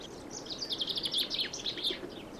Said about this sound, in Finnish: jokainen Ivalon eteläpuolella joskus käynyt suomalainen on kuullut Peipon laulavan ja kuulee sen myös tänäkin vuonna, haluaa tai ei. Ja onhan se hienoa tietää, mikä lintu huhtikuussa suorastaan karjuen toivottaa kevään saapuen.